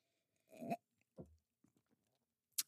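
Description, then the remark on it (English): A sip of bourbon from a glass: a short slurp, then a low gulping swallow, a few soft mouth clicks, and a sharp little clink at the end. No talking. “I just made another uh, glass so I could have a sip as we.”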